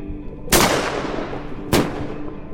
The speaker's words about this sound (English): It's been an experience for you, the sea lion, but the explosions are all too much, and you retreat from the dam.